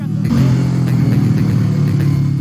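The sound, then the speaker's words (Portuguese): A new motorcycle ridden by a 14-year-old revs loudly, its low throaty drone rising and dipping slightly in pitch over a couple of seconds, with no voices. “esse de 14 anos, pilotando uma moto nova.”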